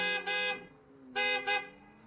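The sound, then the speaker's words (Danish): A car horn honks in two quick double bursts, four loud, bright blasts in all, with a short pause between the pairs. No one speaks. “Så der var ingen motorlarm og dythorn.”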